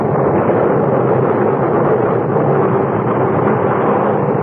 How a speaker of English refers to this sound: We could still see the faint outlines of the ship when suddenly, without warning, a cloud of black smoke shot up from her bow. And within moments, a great explosion blew her apart from stem to stern.